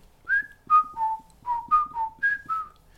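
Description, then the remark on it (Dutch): A person whistles a family signal tune of about eight clear notes that rise and fall in a quick, steady rhythm, on its own with no talking. “Uh, wij hadden trouwens ook een familiefluit.”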